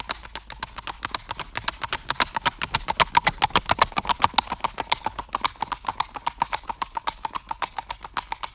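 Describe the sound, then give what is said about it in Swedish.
Rapid, evenly spaced hoofbeats of a horse in pure tölt clop steadily on a hard surface in a smooth four-beat rhythm (left hind, left front, right hind, right front, with equal spacing between steps), clear, with no voices over them. “Och om man lyssnar på ren trölt så låter det så här, precis som vår signaturmelodi.”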